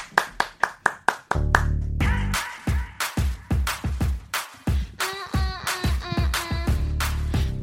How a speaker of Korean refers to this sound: 박수로 정해드리겠습니다. 라이브요.